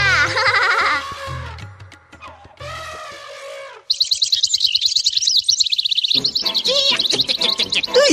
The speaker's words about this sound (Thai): เจ้านกบ้าจะร้องเสียงดังทำไมเนี่ย ข้ากำลังนอนหลับฝันหวานอยู่เลย